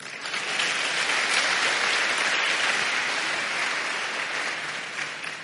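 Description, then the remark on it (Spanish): Sustained audience applause, a dense wash of many hands clapping that swells quickly and holds steady at a loud level for several seconds before easing slightly at the end, with no talking. “Un aplauso para el hombre.”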